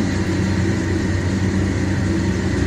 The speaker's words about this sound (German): Das geht so, dass die eine Baustelle direkt vor meiner Haustüre haben.